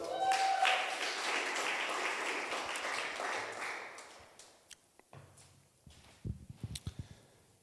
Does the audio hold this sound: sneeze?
no